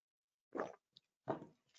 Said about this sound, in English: Just gonna get a, sweet, a sip of water.